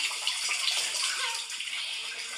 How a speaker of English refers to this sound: You can hear the trickling. It's coming.